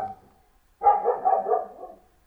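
A dog barks below the window in a short, rough burst lasting under two seconds, after the faint tail of an earlier bark fades.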